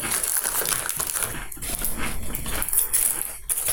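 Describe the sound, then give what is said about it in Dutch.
Dry, brittle crunching of a thin, dill-tasting potato chip being chewed, a steady run of loud crackly bursts with no voices over it. “Is het een gewone chip? Hij kraakt op zich goed.”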